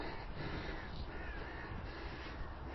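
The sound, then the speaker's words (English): A crow caws repeatedly in harsh, rasping calls over a steady wash of outdoor background noise with no one speaking. “Oh, my crow's gone now.”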